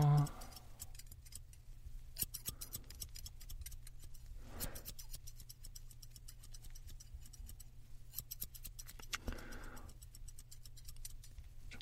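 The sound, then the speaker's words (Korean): Scissors snip steadily in a quick, irregular rhythm of crisp metallic clicks as a hairdresser trims the length of a customer's hair, with a few louder bursts of cutting over a low background hum and no talking. “좀 속가위로 이제 머리 길이를 좀 정리를 할게요.”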